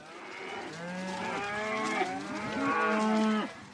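A cow moos twice in drawn-out, wavering calls, loud, with a short break between them and no one speaking.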